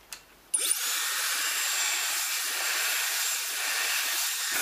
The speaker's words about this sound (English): If I use the higher speed level of the hair dryer, it feels then as I'm standing in a storm. That is why I reduce the speed here. But then I set the button back to the highest level.